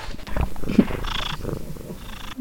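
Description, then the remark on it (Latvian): A domestic cat purring at a museum, a steady low rumbling flutter that continues throughout with slight rises and falls in intensity, heard on its own without talking. “Jā, kaķītūtī.”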